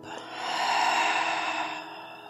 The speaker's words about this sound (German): Ja, wie so ein Halbkreis vor deiner Brust atmen wir jetzt mal wie eine Welle ganz tief ein, zuerst in deinen Bauch und dann in deinen Brustkorb.